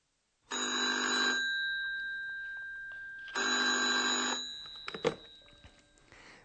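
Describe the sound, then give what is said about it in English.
A telephone rings twice in a hotel, each ring a bright, buzzing electronic trill lasting about a second, separated by a pause, followed by a clunk like a receiver being lifted as the phone is picked up at the Hotel Europa reception. “And now for the second scene a telephone conversation”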